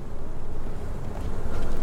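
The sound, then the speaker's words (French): A dense, steady drone of many honeybees buzzing around an open hive, a continuous low hum that swells slightly toward the end, with no voices. “Bah, euh, l'amorce, en fait, ça les dirige juste, ça t'évite d'avoir euh, une abeille qui a décidé de créer ses, ses cadres dans l'autre sens, en fait.”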